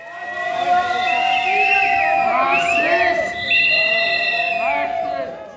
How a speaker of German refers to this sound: Rund 250 Demonstranten haben sich gegen 8 Uhr morgens vor dem Landtag versammelt. Politikerinnen und Politiker bahnen sich ihren Weg an der Demonstration vorbei. Einige werden von der Menge ausgebuht.